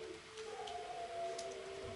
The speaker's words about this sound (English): I think uh, the dogs know we're talking about what we're going to talk about, and you're going to actually, it's going to freak you out that the dogs are howling uh-huh.